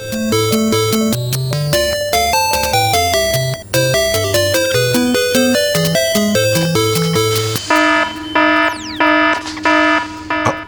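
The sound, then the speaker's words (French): A loud electronic computer security alert alarm, set off by a secret script installed by Arnaud in a network's computer systems, plays alone: a rapid run of stepping synthetic beeps shifts into short, pulsing repeated bursts near the end. “tu sais ce que c'est cette alarme C'est un des scripts secrets installés par Arnaud dans les rouages informatiques de la globale qui vient de se déclencher.”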